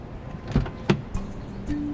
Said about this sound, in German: Der Verkäufer öffnet die Tür des Autos, der Kunde setzt sich auf den Fahrersitz.